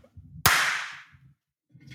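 One sharp, loud hand clap, made to test the echo of the room, followed by a bright echoing tail that fades over about half a second, with low murmuring voices before and after.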